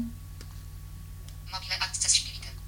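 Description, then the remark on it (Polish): A smartphone's Home button is pressed to return to the home screen, setting off a bright, high-pitched electronic feedback sound, a quick flurry of chirpy tones lasting about a second over a low steady hum. “Naciskamy przycisk Home.”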